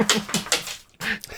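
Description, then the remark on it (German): A dog whimpers, with a few short clacking bursts from the dog in quick succession, a brief pause, then another whine and clack; no one speaks. “Wenn ihr hier was klackern hört, das ist unser Hund.”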